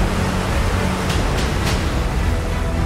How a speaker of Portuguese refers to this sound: Com o som das ondas do mar quebrando na praia.